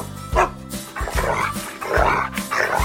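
A dog named Altai, the speaker's loyal dog, barks a greeting repeatedly in short, eager bursts, about five or six yips and woofs in a quick, uneven rhythm, loud and clear with no talking over it.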